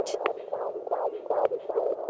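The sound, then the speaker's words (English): A fast, rhythmic whooshing pulse, like an unborn baby's heartbeat picked up by a handheld Doppler monitor as a midwife measures it during a third-trimester prenatal checkup, beating steadily at moderate volume with faint hiss around it and no talking. “They take turns going behind a wall divider where a midwife measures their blood pressure and their baby's heartbeat.”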